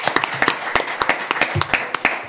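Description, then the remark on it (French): An audience applauds a Century 21 real estate director of three agencies, with many sharp overlapping claps forming a steady, moderately loud patter that continues throughout without any talking. “Voilà, euh, applaudissements pour Gilles Blanchon.”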